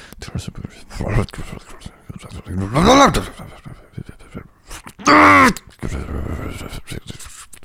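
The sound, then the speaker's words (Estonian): A voice imitates angrily tying shoelaces with a few strained, grunting vocal bursts, breathy noises in between and a loud, tense cry near the end, fairly loud. “ma proovisin teha sidumise häält siis.”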